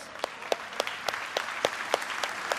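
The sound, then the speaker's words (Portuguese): A church audience applauds its costumed cell groups, with sharp, loud claps landing in a steady, even rhythm about three or four times a second over a dense bed of scattered clapping. No one speaks. “Uma salva de palmas para essas células.”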